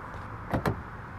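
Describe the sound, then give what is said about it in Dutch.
Two quick mechanical clunks in close succession as someone yanks the handle of a locked car door twice without it opening, against a low, steady background hum. No one speaks. “Waarom gaat mijn auto nou niet open?”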